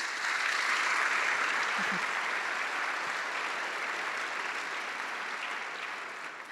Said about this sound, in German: Ein Applaus.